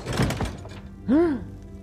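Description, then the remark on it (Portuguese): A door thuds shut with a couple of dull knocks as a character enters and closes it, followed a moment later by a brief rising-and-falling voiced sound. “Sim, quando ele entra para dentro, Erevan fecha a porta.”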